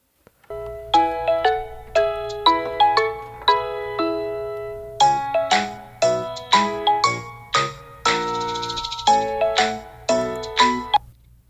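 A telephone rings with a melodic ringtone, a bright, bell-like tune of quick chiming notes repeating steadily and fairly loud for several seconds, with no voices over it, as a call is placed to a pastor in Israel.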